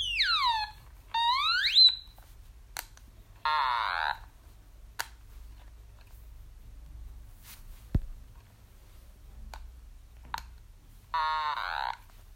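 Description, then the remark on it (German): An Otamatone electronic toy instrument plays short, buzzy, nasal notes that slide and warble in pitch, a few quick bursts with pauses between them, fairly loud, with no talking. “Ich probiere eine Otamatone aus”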